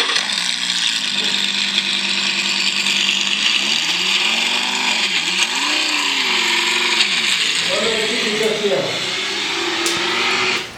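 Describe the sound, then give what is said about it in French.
A loud sports car engine roars continuously for about ten seconds, its pitch repeatedly climbing and dropping as it revs at speed, with a harsh, buzzing mechanical whine throughout. “Hum, j'adore les voitures de sport, surtout le bruit de la vitesse.”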